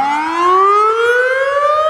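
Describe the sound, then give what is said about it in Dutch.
A loud, steady civil defense siren sounding its monthly public warning test wails continuously, its tone slowly rising in pitch with strong harmonics, and no one speaks over it. “Maar de, de vraag waarom iedere maand dit lawaai? Ik bedoel, het is, het, is, het, is, het is eh, heel vervelend voor honden natuurlijk.”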